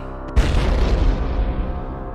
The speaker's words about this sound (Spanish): Y si sí, efectivamente son tan picantes que le explotaron la cabeza literalmente.